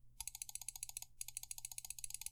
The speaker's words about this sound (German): Ich mache mein Light Attack Weaving folgendermaßen. Ich drücke oder ich, in einem Rhythmus drücke ich dauerhaft linke Maustaste. So, ihr hört das jetzt mal.